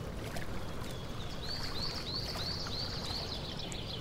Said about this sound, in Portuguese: Escutamos o som das águas do lago e o canto dos pássaros ao longe enquanto um grupo de patos nada, deslizando sem pressa alguma pelo espelho d'água.